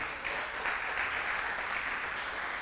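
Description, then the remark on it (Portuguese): A crowd claps steadily throughout, a dense, sustained wash of applause that stays fairly even in loudness without pauses, sounding like many people clapping together. “Dá um aplauso aí, isso.”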